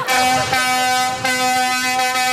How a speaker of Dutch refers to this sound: Blijf met je, met poten van die toeter af van die tractor, ja.